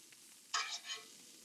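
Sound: butter sizzling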